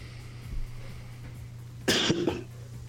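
human body sound, coughing

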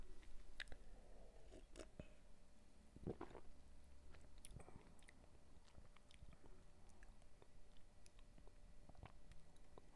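food or drink, sipping beer

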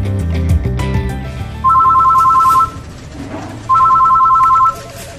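signal or alarm, telephone ringing

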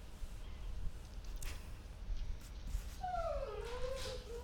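animal, puppy whimpering

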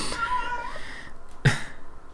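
animal, cat meowing loudly

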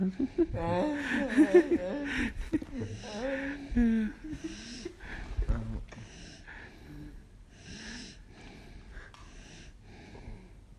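human body sound, person snoring

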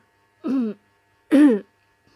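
human body sound, throat clearing cough

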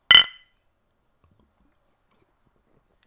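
household object, glasses clinking

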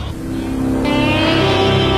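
vehicle, car engine running

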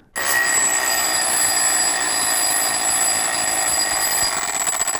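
household object, alarm clock ringing

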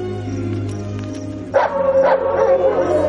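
animal, dogs barking

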